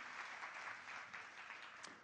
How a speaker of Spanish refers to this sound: Pequeño, sí señor, un aplauso. Lo tenemos.